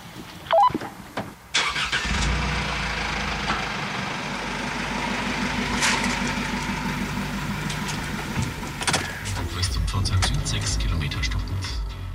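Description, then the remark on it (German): A car engine cranks and catches after a few clicks, then settles into a steady idle before revving and pulling away to follow a patient transport vehicle, the low rumble rising and holding. “Damit es im Wünschewagen nicht zu eng wird, fahre ich mit meinem Auto hinter ihm her.”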